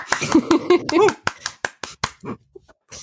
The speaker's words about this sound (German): Applaus.